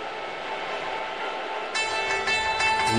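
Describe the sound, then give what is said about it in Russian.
Dark, atmospheric instrumental game music with sustained droning tones, swelling fuller and brighter about halfway through as new layers enter; no voices. “звучало в игре Diablo 2, которой на днях исполнилось 20 лет”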